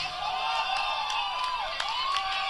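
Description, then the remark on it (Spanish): A big concert crowd shouts and cheers at the performer without pause, a dense, steady roar of many voices with occasional louder individual cries rising briefly above the din. “le gritan. Y le avientan una bandera.”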